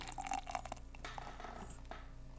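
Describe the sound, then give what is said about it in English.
A dark porter beer glugs and splashes steadily into a glass, with brief gurgling bubbles early on and a continuous fizzy wash as a head forms. No one speaks. “Uh, pouring it now.”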